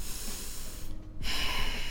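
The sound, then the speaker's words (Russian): Heavy, drawn-out angry breathing: a long, noisy huff, a brief pause, then another forceful breath, performed by a person imitating how they breathe when getting angry, with no talking. “Я начинаю долго дышать и начинаю беситься.”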